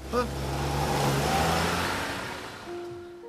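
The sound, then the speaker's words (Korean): A car pulls away from a traffic light as the signal changes and accelerates, its low engine hum swelling into a louder whoosh before easing off, with a faint steady tone at the very end. “자 신호 바뀌어서 출발하니까 꽉 잡아.”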